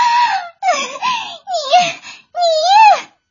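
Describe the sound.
A person voices loud, exaggerated wailing sobs in four drawn-out bursts, each with a wavering, rising-and-falling pitch, imitating the Snake Spirit and Scorpion Spirit demons crying after their magic mirror is cracked.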